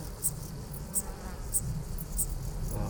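A Decticelle splendide bush-cricket stridulates in short, high-pitched buzzing pulses repeating at a steady rhythm, fairly faint, over a low background rumble with no voices.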